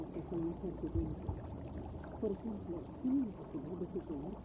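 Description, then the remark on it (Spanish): Water in a fish aquarium in a doctor's office bubbles and gurgles steadily, a continuous low wash broken by short, wavering hollow tones that rise and fall throughout. “Se concentra en el sonido del agua.”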